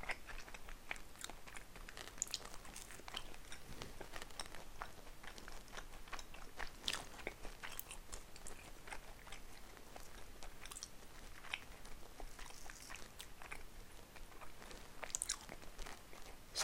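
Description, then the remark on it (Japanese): Crunchy chewing and biting, steady and continuous for the whole stretch, as someone eats garlic toast at lunch, with no talking. “昼食べながら雑談”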